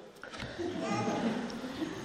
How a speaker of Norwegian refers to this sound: Kanskje det er derfor barna gråter.